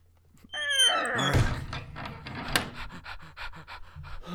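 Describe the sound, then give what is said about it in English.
A heavy trap door slams shut with a single deep thud, surrounded by loud, rapid panting and gasping breaths, with a sharp knock shortly after. “Close the, Come close on, man. The trap door.”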